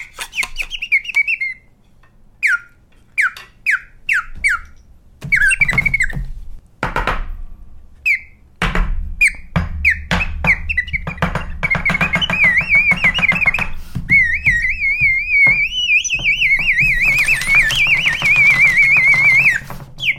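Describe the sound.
A hand-blown bird whistle of the kind sold in souvenir shops, imitating sparrows for the seasonal topic 'sparrows begin to nest': quick bursts of short chirps, then longer warbling trills, with some rustling and knocking noises in between, fairly loud, no talking.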